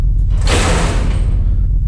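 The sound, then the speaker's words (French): A spaceship door slides open with a single broad, airy whoosh lasting about a second, over a steady low mechanical rumble; no one speaks. “Bon, d'après les plans, c'est cette porte qu'il faut prendre.”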